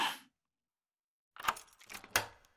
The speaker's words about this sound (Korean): 눈이 먼 남자는 왼손 손가락 끝으로 열쇠 구멍을 더듬어 문을 열려고 했다. 아, 이게 아니네.